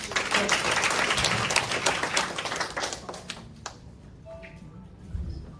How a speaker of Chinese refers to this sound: 我们以最热烈的掌声来感谢我们今天的主持人